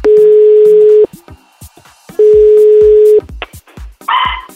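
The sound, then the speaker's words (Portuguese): Two long, steady phone ringing tones with a pause between them as a call is placed to a man in Santos, followed at the very end by a single short, tinny dog bark coming through the line. “Um cachorro atendeu.”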